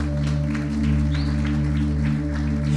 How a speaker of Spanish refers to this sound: Hoy es el Día Internacional de la Familia. Den un aplauso a Jesús por eso.